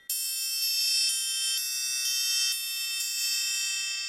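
A steel triangle rings continuously, struck repeatedly with a heavy beater in a steady roll, producing a bright, shimmering metallic tone with dense high overtones that sustains evenly throughout.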